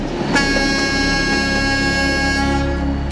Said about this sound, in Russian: А каждый год 4 июня все пассажирские и грузовые поезда, проезжая этот участок железной дороги, дают длинный протяжный гудок в память о погибших в Улутилякской катастрофе.